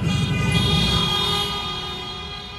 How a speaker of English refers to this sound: I want to weep. Hundreds, thousands of cars, of bicycles, motorcycles, people of all kinds, all colors, all ages, beeping, honking, shouting, waving handmade signs out of the window.